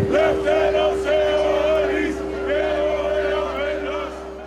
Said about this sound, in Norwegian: Blod, ære, gyllent daggry er slagordet tilhengerne av partiet Gyllent daggry roper når de tar til gatene i Hellas og i Aten som her.